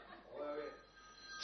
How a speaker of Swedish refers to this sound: ja det är min telefon som ringer